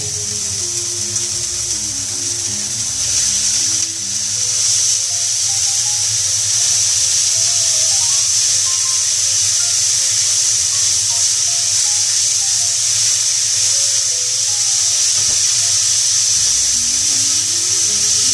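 Ground pork sizzles loudly and steadily in a hot pan, a dense, continuous crackling hiss that stays unbroken throughout, with no talking.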